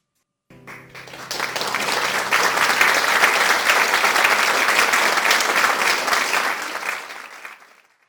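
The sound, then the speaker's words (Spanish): A crowd bursts into loud, sustained applause for the work of the Dominican Republic baseball team at the World Baseball Classic, dense clapping swelling quickly and holding steady for several seconds before tapering off at the end. “Y eso merece un fuerte aplauso.”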